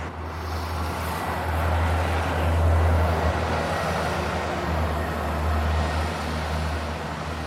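street traffic

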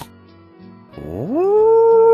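wolf howling

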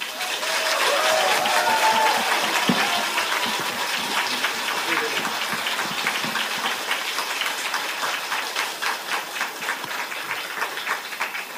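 warm applause

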